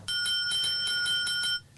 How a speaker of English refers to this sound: Anytime something's over our over my head, I'm just going to ring the bell and have oh. you guys oh. dial it back and explain it to me for the idiots.